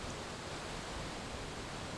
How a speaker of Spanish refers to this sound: Ahora lleva tu atención al sonido de la cascada. Escucha atentamente cómo el agua cae con suavidad y firmeza, creando un flujo constante de sonido.